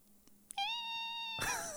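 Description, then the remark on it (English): A person imitates the meow of a big cat sitting on the porch: one loud, drawn-out nasal call that holds a steady high pitch, then turns raspy and slides downward at the end, with no other talk. “Um, but then she normally has like a decent meow, but she's a big cat, you know, and so she'll be sitting on the porch or whatever, and she'll just go.”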